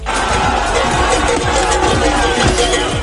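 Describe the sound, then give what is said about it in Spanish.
A dense, loud crowd roars and shouts continuously, with chaotic overlapping voices and scattered sharp bursts, as police charge protesting farmers outdoors in front of the regional presidency in Oviedo. “Este es el sonido de la carga policial frente a la presidencia del Principado de Oviedo.”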